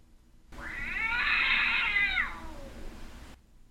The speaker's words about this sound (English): If one heard a pitiful meow